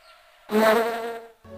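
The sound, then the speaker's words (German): A fly in a free indie video game buzzes loudly for about a second, a dense droning whine that swells and then cuts off, with quieter tonal hum before and after. “So ein Leben als Fliege kann verdammt kurz sein.”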